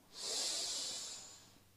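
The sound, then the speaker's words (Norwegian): A single long, deep breath drawn in through the nose, airy and hissing, swelling quickly and then slowly fading over nearly two seconds, with no talking. “Pust godt inn gjennom nesa.”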